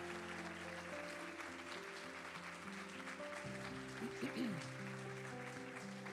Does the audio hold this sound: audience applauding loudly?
yes